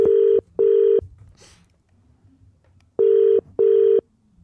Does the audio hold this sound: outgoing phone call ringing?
yes